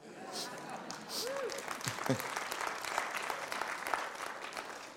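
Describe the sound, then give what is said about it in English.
An audience bursts into steady applause during a sermon, many hands clapping in a dense, continuous patter for several seconds, with a few scattered voices and brief cheers rising over it. “That was a good place to clap.”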